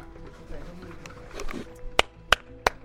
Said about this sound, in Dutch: Ja, er staat, staat, iemand aan de overkant volgens mij. Dan kan je klappen met je microfoon in Ik kan niet klappen met de microfoon in de hand. Ja, ik hoor klappen.